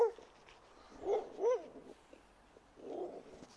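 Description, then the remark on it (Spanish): A dog barks three times: two quick barks close together, then a single one after a pause, muffled, with no talking. “A ver si no me mata un perro.”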